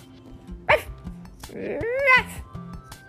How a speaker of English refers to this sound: Out of the light, Laika, the space dog, barked at him.